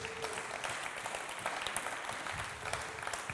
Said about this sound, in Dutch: Laten we Jezus daar een grote applaus voor geven.